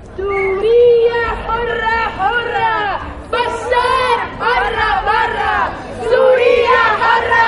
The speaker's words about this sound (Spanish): Mientras Europa debate sobre cifras, una parte de la ciudadanía ha salido a la calle para mostrar su apoyo a los refugiados. Este sábado hubo manifestaciones como la de Madrid por toda Europa.